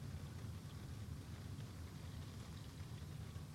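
Steady, even rainfall hisses throughout with a deep low rumble of thunder rolling continuously beneath it. No voices, just a constant, fairly quiet wash of storm sound.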